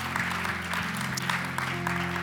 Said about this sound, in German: Ja, Applaus.